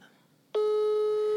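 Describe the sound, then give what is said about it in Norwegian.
A steady electronic ringback tone from a phone on speaker, calling a grandmother of nearly 95 from a cabin in the forest, starts abruptly after a brief quiet stretch, holding one loud, unbroken pitch to the end. “Da ringer altså bestemor på snart 95 år.”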